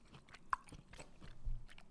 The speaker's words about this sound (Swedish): Jag ska bara äta klart de här fyra oliverna innan jag ställer den.